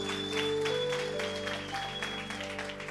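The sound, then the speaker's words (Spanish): An audience claps steadily and loudly for a few seconds after a prayer, cheering to hear the word of God, a dense wash of many hands with sustained organ-like tones humming underneath. “¿Hay alguien emocionado por escuchar la palabra de Dios que pueda dar un aplauso fuerte?”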